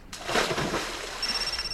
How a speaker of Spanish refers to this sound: Mi celular suena. Seguramente es mi papá. Saldré a ver. Ah, no. Es un mensaje.